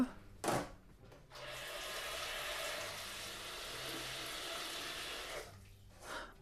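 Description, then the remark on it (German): Water runs steadily from a tap into a pot, for cooking pasta, for about four seconds, a broad hissing splash that ends abruptly, with a couple of brief knocks before and after. “Erstmal Wasser in den Topf.”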